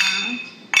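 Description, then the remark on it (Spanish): Glasses clink together in a toast, a bright ringing tone that lingers, followed by a second sharp clink near the end. Clear, with faint background murmur. “Salud, hermano, salud, salud.”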